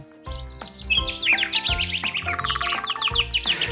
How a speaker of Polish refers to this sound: I od razu wszystkie ptaki w szczebiot, w świergot, w zgiełk. O taki.